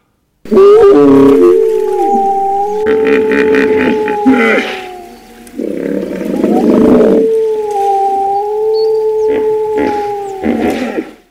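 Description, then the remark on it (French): Long, drawn-out wolf howls rise and hold in overlapping layers, broken by deep, rumbling hippopotamus grunts and bellows. The sounds are loud, with no talking. “Eh bien, dans les podcasts, on va faire rentrer exceptionnellement, puisque c'est l'histoire et que c'est mon histoire, on va faire rentrer les loups et les hippopotames.”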